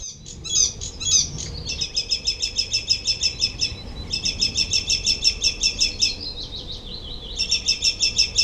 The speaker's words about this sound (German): Mein Vogel der Woche, der Gelbspötter.